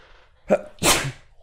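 sneeze

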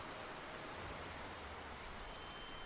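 rain falling

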